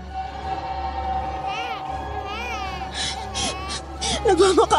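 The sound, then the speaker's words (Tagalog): An infant being carried in someone's arms cries in repeated rising-and-falling wails, growing louder and more strained toward the end, over a steady low background hum. “Iyak naman ang iyak ang anak ko.”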